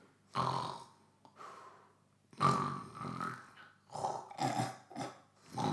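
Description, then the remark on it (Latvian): A voice imitates a man asleep in a cinema seat snoring, giving several rough, rattling snorts and growly inhales in an uneven rhythm, loud, with no actual speech. “Un pēkšņi es pamanu, ka kaut kur čels sāk krākt, vai ne?”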